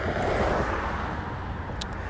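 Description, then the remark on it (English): A bus rumbles along the road, a steady low engine drone with broad traffic noise that holds fairly constant, with a faint high hiss near the end. “Oh, here comes the bus.”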